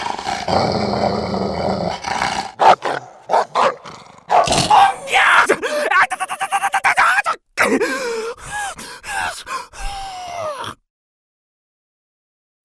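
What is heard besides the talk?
dog growling and barking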